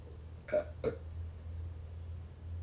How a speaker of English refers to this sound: And I burped.